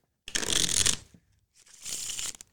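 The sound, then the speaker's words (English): Two quick bursts of a deck of playing cards being shuffled, each a crisp, papery riffle lasting under a second, separated by a short pause, with no talking. “I am holding the deck of cards.”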